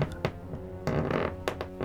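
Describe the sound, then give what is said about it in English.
Wooden floorboards in a hallway groan and creak under the slow footsteps of an old woman walking down the hall, several drawn-out creaks at uneven intervals over a low hum, moderately quiet, with no voices. “they heard the floor start to groan and creak as the crone made her way back down the hall towards them.”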